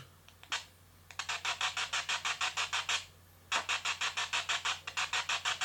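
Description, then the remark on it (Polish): Radio static hiss from a radio being manually scanned for stations, with many carrier signals because a computer is switched on, pulsing in a fast, even chopping rhythm broken by two short pauses. A steady low hum sits beneath the bright, fairly loud bursts, and no one speaks. “I on też dość ciekawe ma to takie, ten szum taki przerywany.”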